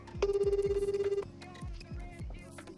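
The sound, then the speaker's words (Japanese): One steady, mid-pitched ringback tone of an outgoing phone call placed live on a radio show to a listener, a single warbling burst of about a second, followed by quieter background music with repeating falling notes. “まずはこの方にかけてみたいと思いますかけますはいいきます”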